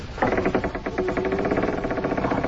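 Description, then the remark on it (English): A heavy temple door, the door of the temple of Osiris, grinds open with a loud, continuous rattling scrape, rapid juddering pulses and a faint droning tone running through it for a couple of seconds, with no voices. “You slid the bolt back. Now we can go into the temple and see the mummy of the pharaoh. Wait, I'll open the door.”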